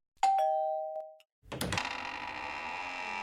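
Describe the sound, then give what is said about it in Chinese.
A doorbell, pressed by a child, rings with a clear two-note chime, high tone falling to a lower one, then a brief pause before a clunk and a steady rushing hiss that carries on to the end. “丁丁左手握着南瓜掌心雷，按了门铃。”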